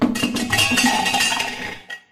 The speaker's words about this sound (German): ich habe das Gefühl, jedes Mal, wenn man irgendwelche Schulglocken oder irgendetwas in die Richtung läutet, kommt irgend so ein Kasper da rein gespastet.